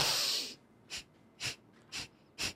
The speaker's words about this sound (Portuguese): Não, é como se eu tivesse mergulhado. Eu sugo o ar.